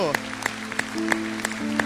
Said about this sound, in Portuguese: Aplaude, ele aplaude.